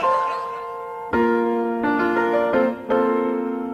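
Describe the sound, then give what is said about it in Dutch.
A sitcom's opening theme plays: a series of sustained piano-like chords struck one after another at a relaxed pace, fairly loud, with no singing or talking. “Dit is de begintune van eh, Cheers, Where Everybody Knows Your Name”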